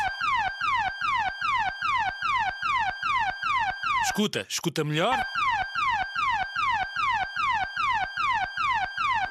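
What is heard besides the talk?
house alarm going off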